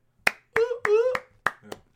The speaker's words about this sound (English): Yeah, our claps are back as well. It's been a little bit.